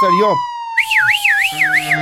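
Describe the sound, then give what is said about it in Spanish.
A police patrol car siren wails in repeated rising and falling sweeps, loud, with a steady tone underneath and a brief lower wail at the start; no one speaks. “¿Tienes efecto de patrulla?”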